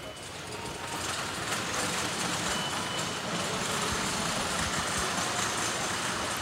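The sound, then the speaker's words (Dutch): Several roll containers are wheeled past by a staff member, their wheels making a steady, loud rattling rumble that goes on without a break for the whole stretch, with no voices heard. “Er komt ondertussen nog even een collega van je voorbij met een stel eh, rolcontainers.”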